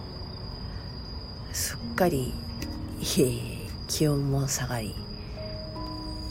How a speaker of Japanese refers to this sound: セミの鳴き声から、リンリンリンと、スズムシかなの秋の声に BGM が変わった深夜、皆様はいかがお過ごしでしょうか